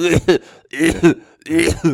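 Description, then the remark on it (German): A voice imitates a snotty child coughing openly into the room with open mouth, three loud, throaty, unmuffled bursts in a loose rhythm, with short pauses between them. “War so ein Kind, was so irgendwie so ein bisschen lost durch irgendeinen Raum läuft, mit so klebrigen Eishänden, Schnodder läuft runter und es hustet so in den Raum rein.”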